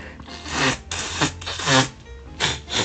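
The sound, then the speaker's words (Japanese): A person blows their nose into a tissue, several short, breathy bursts with rustling in between, fairly loud and with no talking. “まあそんなこんなでね、聞こえます今日大丈夫かなちょっと、鼻かんでいいそして。”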